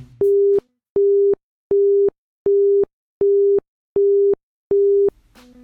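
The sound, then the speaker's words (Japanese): A British telephone busy tone: seven identical steady beeps at a low-mid pitch, evenly spaced on and off in a slow regular rhythm, clear and loud with no talking. “でもう一つ面白いものを聞いてもらいましょう、えー、これはイギリスでのビジートーンですどうぞ”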